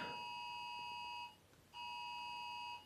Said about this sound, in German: Irgendwo piept's. Ist das bei dir oder bei mir? Das ist bei dir. Okay, warte mal kurz. Was ist das denn? Äh, heute ist Deutscher Warntag und man kann in seinem iOS Testwarnungen aktivieren. Und das ist die oh. Testwarnung.